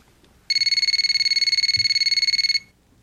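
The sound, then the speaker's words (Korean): A telephone rings with a loud, rapid electronic trill, a fast warbling burst of high pulses lasting about two seconds before stopping abruptly. There is no talking. “그런 어느 날 저에게 한 통의 전화가 걸려왔습니다.”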